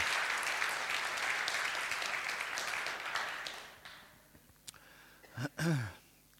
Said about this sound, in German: Dankeschön. Applaus, genau.